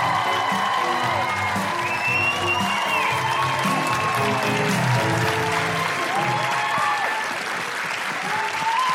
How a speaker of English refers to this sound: Please put your hands together and make incredible Canberra guilty feminist woohooing noises